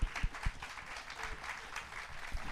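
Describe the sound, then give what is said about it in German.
Audience applause for the winner of the evening's prize at a stage event: a dense, steady wash of many hands clapping, sustained at a moderate level throughout with a few sharper low thumps early on, and no voices. “Einen riesen Applaus für die Gewinnerin”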